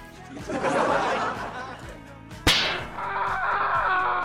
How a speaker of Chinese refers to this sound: 条我最爱郭大嫂扇郭大侠啪的声音了，条我念你帮我配音好不好？啪啪。